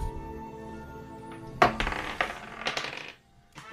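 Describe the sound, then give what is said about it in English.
Dice rolled for initiative clatter across a hard tabletop: a sharp first impact, then a quick flurry of rattling bounces that settle and stop, over a faint steady hum with no voices. “Roll initiative.”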